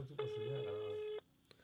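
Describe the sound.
A phone line rings out on an unanswered call to a bank employee: one steady, mid-pitched ringback tone lasting about a second, fairly loud, with people's voices murmuring underneath it.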